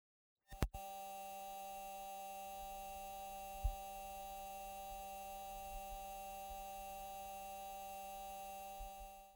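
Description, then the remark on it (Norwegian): A steady electronic hum with a high, scratchy buzzing edge, recorded by a NASA rover on Mars, runs continuously after a sharp click at the start, holding constant with faint low rumbles underneath. “I et annet lydklipp kan man høre en høyfrekvent skurring.”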